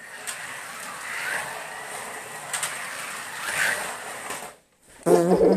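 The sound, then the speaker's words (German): Carrera toy slot cars whir and buzz around a track in a race, with a steady electric motor whine and small rattles, then briefly cut out before a loud burst of noise. “Carera go rennen”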